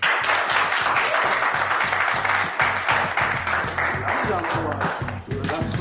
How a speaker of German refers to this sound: Applaus bitte.